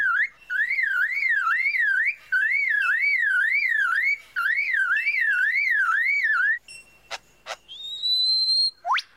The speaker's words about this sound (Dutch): And that's a car alarm.